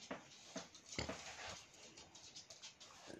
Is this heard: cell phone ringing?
no